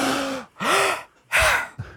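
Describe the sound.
A voice imitates the shocked gasps of a cinema audience at Stjørdal cinema in 1980: three loud, breathy intakes with a rising voiced squeak, followed by a short fourth gasp, with brief silences between them.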